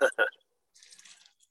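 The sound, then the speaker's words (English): MD 2020 and then Joose are poured into a cup to mix a pineapple and blackberry drink, in a short, soft splashing trickle lasting about half a second, following two brief louder bursts of sound at the start. “Pouring out a little, get that MD 2020 in there first and then get that that Joose in there with it.”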